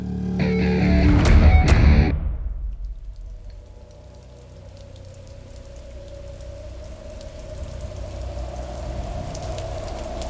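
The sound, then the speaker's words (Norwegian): Steady, heavy rain pours down over a royal estate in northern Norway, hissing continuously, with a sour spring wind howling and moaning underneath. A louder, busier burst of sound opens the first couple of seconds before the downpour settles in. “En sur vårvind uler, og regnet øser ned over en kongsgård nord i landet.”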